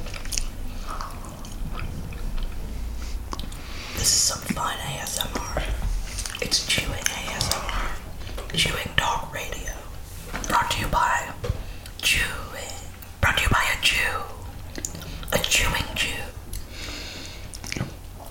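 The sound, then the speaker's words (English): Crunchy cookie chewing right at the microphone as an ASMR bit, with more than one person eating cookies: repeated bites and wet, crackling mastication sounds in an irregular rhythm, accompanied by soft whispering throughout. “Yeah, so we're going to eat cookies into the mic.”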